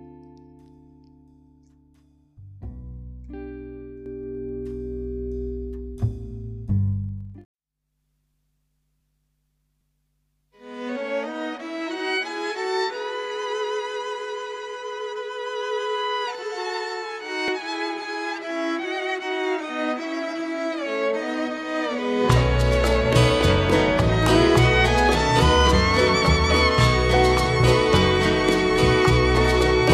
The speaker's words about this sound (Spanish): seleccionamos de ese disco boleros y canciones del año 2018 este tema